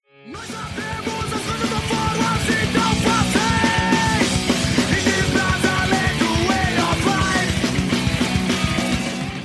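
A loud, dense punk rock song kicks in fast, with distorted guitars, driving drums and shouted vocals pushing steadily at full volume throughout.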